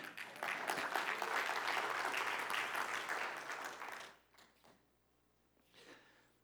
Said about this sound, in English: I'm so glad you guys are clapping now because there won't be any clapping for this next point.